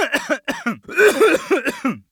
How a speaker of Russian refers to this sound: Вместе с лозунгами из глотки одного пессимиста вырвался очень нехороший кашель.